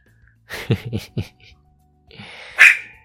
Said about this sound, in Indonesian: Dan gua kasih seekor uh, sebuah boneka untuk menjadi temannya dia gitu dan kadang-kadang dia gonggongin boneka tersebut atau gigit-gigitin boneka tersebut